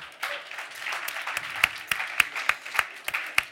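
An audience at Omnivore applauds steadily to welcome a guest, a dense patter of many hands with several sharper individual claps standing out, holding at a moderate level for a few seconds.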